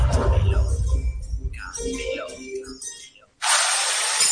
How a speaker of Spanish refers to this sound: Este es el ruido de las reformas. Y con Fidel Cocinas suenan así.